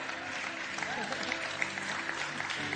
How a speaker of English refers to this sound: Yeah, you can actually really clap the Lord for that because that's. Because that's a revelation you can chew on for a few weeks. It needs another clap, i tell you right now.